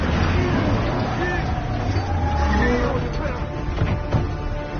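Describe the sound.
A pickup truck's engine rumbles steadily as it drives, a dense, continuous roar that eases slightly at the end, with indistinct voices mixed into the noise.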